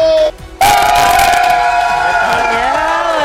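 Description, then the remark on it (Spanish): A live audience suddenly erupts into loud cheering and applause, with high whistles and whoops riding over the noise, sustained for a few seconds after a brief pause. “vamos a aprovechar que le den un aplauso a Mafer Alonso”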